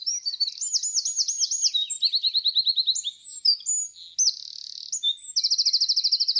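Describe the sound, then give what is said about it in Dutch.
A single bird sings at its normal, unaltered pitch a quick, high-pitched song of rapid repeated trills and varied chirping phrases, continuous and clear throughout, with no voices or other sounds. “Eerst een vogel zoals die normaal klinkt”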